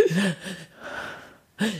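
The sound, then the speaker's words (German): A voice imitates nervous, gasping breaths, as when forgetting how to breathe before giving a presentation: three quick, breathy bursts with a slight voiced catch, fairly loud, separated by brief pauses. “Aber wie vor einem Vortrag, wo du dann gefühlt plötzlich vergisst, wie man atmet. Und dann macht man so.”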